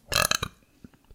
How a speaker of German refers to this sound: Das war ein Rülpser und der kam von dir. Okay, ja, ich gebe es. Ja, ich habe ihn, hab ihn aufgenommen. der geht jetzt raus in die Welt.